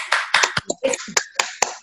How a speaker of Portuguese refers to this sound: E hoje, em especial, que nós temos aqui a educação física e a fisioterapia representada, nós terminamos com a nossa salva de palmas para esses dois profissionais